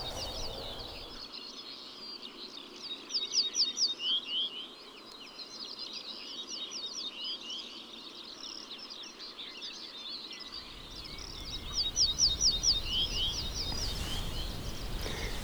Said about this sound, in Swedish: Nu sitter jag nästan omgiven av ortolansparvar törnsångare, träpipläka, bofink, buskskvätta ska se om jag kan hitta någon ortolansbarr. Det är som att de inte bara säger biff, biff, biff med lök, lök, lök